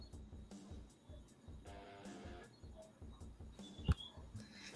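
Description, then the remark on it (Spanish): Choppy, garbled video-call audio keeps cutting in and out as the connection drops, a voice breaking into stuttering digital fragments and chirps, with a sharp click near the end. “Ay, otra vez ya lo perdimos.”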